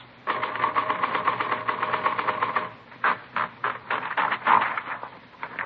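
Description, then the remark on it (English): Typewriter typing as it is tested against a forged letter: a fast, steady run of clacking key strikes for a couple of seconds, then slower, more spaced-out keystrokes, with no voices. “No, this isn't the typewriter we're looking for.”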